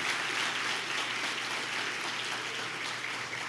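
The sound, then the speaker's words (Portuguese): Sustained applause from a church audience clapping for Jesus, a dense, steady wash of many hands clapping at even loudness for several seconds with no voices standing out. “Gente, de verdade, vamos dar uma linda salva de palmas para Jesus, que eu estou me sentindo hoje.”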